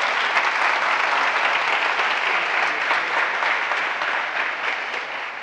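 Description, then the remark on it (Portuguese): Sustained applause from a sizable audience, steady and loud throughout, with dense clapping that fades slightly toward the end. No one speaks over it. “Dá um aplauso a ele por isso.”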